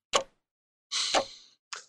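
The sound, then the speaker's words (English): A wall clock in a foyer sounds: a sharp click, then a brief whirring rush with another clack inside it, and a final short click, with no talking. “Now there is a clock on the wall in the foyer.”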